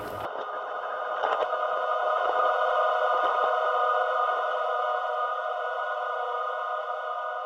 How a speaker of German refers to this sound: Und dieser Prozess, dieses Vermischen, dieses Morphen zwischen diesen zwei verschiedenen äh, Klangsituationen wird äh, von einem Computerprogramm durchgeführt, das äh, diesen Übergang äh, mit Hilfe des Zufalls bewerkstelligt.